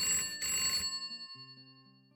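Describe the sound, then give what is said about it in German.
The Poplophon telephone bell rings in a short, rattling burst that then rings out and fades, followed by a softer steady tone; fairly loud, with no voices. “Klingt, das Poplophon klingelt.”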